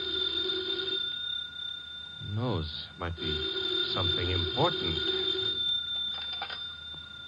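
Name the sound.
telephone ringing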